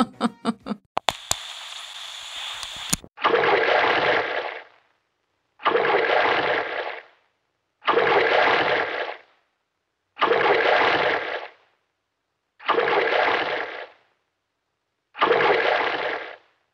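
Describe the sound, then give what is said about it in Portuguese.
After a brief electronic intro, water gushes from a Deca faucet in six loud, evenly spaced bursts, each lasting about a second and a half before cutting off into silence. “Por isso, se a sua torneira Deca estiver vazando, é porque você simplesmente esqueceu de fechar.”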